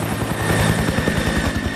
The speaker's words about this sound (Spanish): no nos vamos a andar aquí en California, no, nos vamos hasta Durango, al helicóptero.